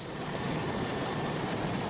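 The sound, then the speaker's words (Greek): A Super Puma air force military helicopter hovers over the sea shortly after midnight during a rescue of two migrants, south of Rhodes. Its engine and rotor wash form a dense, continuous rushing drone that stays loud throughout, with no voices. “Ελικόπτερο Super Puma τη πολεμική αεροπορία έχει εντοπίσει λίγο μετά τα μεσάνυχτα δύο μετανάστε μέσα στη θάλασσα και επιχειρεί τη διάσωσή του.”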